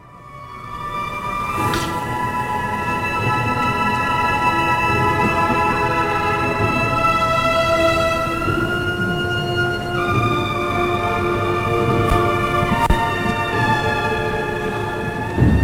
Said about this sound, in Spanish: Para disfrutar de este callejón de los salesianos eh, lleno de personas y ya suena esas cornetas